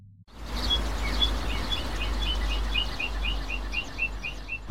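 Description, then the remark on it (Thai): A small bird chirps repeatedly in quick, evenly spaced high tweets over a steady low background hum with no voices. “เจ้านกน้อยน่ารัก ร้องทักว่า ไปไหนมา”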